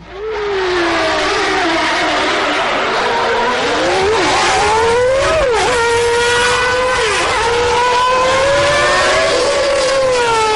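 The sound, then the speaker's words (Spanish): High-pitched Formula 1 engines scream continuously, pitch rising and dipping as cars accelerate and shift gears, loud and close for the whole stretch with no voices. “Y comienza así la Fórmula 1”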